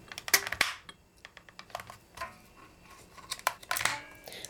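A braille label maker's spacing button is pressed repeatedly and very hard, much harder than for embossing letters, producing a string of sharp mechanical clicks and clacks at an uneven pace, a few hitting noticeably harder, with no one talking.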